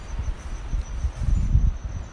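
Wind blowing outdoors, a low, gusty rumble that swells and fades over a couple of seconds, with a faint steady insect-like hum high above it and no voices.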